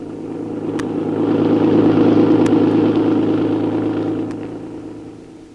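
A taxi's engine roars steadily as it speeds around corners on the way to the airport, the rumble swelling louder then easing off, with a few faint sharp clicks over the motor noise and no talking.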